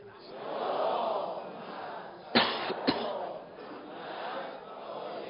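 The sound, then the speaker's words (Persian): An audience at a religious lecture chants salawat together in a sustained, swelling murmur of many voices, broken midway by a couple of sharp coughs before the group chanting rises again. “یه سلوات بلند خط کنید”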